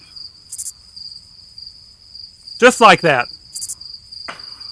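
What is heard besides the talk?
crickets chirping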